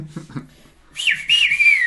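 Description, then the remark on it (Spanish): After a brief murmur of voice, someone whistles a loud two-part call signal to a house to call a friend out: a short swooping note followed by a longer sliding tone that dips and trails off. “Pero no gritó, chifló y le hizo así.”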